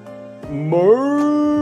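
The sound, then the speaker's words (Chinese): A sturdy water buffalo, chewing green grass with a crow perched on its back, gives a single loud, drawn-out, happy moo to the crow, its low droning call sliding upward in pitch partway through and then holding steady until it cuts off. “哞！ 水牛欢快地对乌鸦说：“ 乌鸦老弟呀！”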